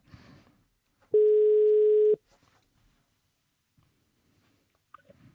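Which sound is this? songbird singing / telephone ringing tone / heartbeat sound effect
telephone ringing tone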